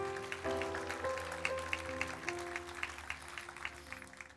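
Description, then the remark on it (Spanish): An audience at an evening church service claps steadily for God in a dense, crackling wash of applause while sustained keyboard chords ring underneath, shifting pitch a few times before the clapping gradually thins out. “Y a mandar un fuerte aplauso a su Dios en esta noche.”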